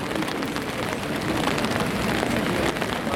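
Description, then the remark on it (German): Steady rain pattering on the umbrellas of a group of about 20 people, a dense continuous hiss of drops with small crackling taps throughout, fairly loud and unbroken, with no voices standing out. “Viele haben Regenschirme oder sind in einer anderen Weise vor dem Wetter geschützt.”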